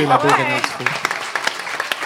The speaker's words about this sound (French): Ce qu'on disait, je pense qu'on pourrait applaudir euh, oui!